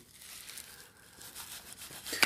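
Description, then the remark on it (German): Soft crinkling and rustling of bubble wrap and extra cardboard sheets as a parcel packed by Castleface Records in Monmouth, UK is unwrapped, with a few brief tearing sounds and a sharper crackle at the end, no talking. “ich sehe Knallfolie und drumherum noch extra ähm, Kartonscheiben.”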